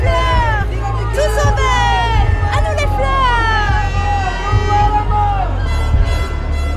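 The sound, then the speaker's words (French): A loud, noisy protesting crowd of mimes carrying placards, gathered below a window, many voices shouting and calling out over one another in a continuous hubbub, with a steady low rumble underneath throughout. “Il y en avait tellement, tellement, et ça faisait un bruit d'enfer.”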